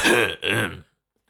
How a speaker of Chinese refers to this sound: 就在此时，屋内传来严夫子咳嗽的声音